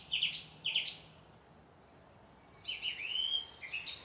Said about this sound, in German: Und das eine Singdrossel.